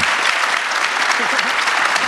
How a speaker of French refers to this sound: Vous pouvez les applaudir, ils sont là, regardez, c'est oh, magnifique C'est magnifique